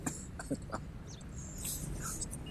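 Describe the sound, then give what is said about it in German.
Three short, quiet coughs in quick succession, followed by a stretch of low background noise with no one speaking. “Der ist eh schon mal gehustet.”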